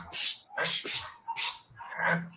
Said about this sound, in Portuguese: Tá ouvindo? É... Mas... Que cachorrada é essa aí, mano?